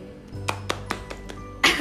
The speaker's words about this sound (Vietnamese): ho quá không dám ho ạ